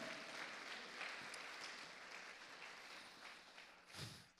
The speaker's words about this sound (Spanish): La iglesia le da palmas al Señor. Amén.